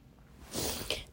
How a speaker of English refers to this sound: And excuse my sniffles, it is so cold in New York you have no idea. We're hitting a, a cold front right now.